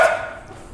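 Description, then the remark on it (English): A single short, high-pitched bark from a little new puppy at home rings out at the start, then quickly fades into quiet room tone. No one speaks. “you can hear there's barking noises because we have a little puppy today uh, and it's our new puppy at home.”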